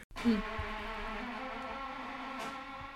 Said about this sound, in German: Hast du das gehört? Das ist eine Drohne? Das ist die Kaffeemaschine.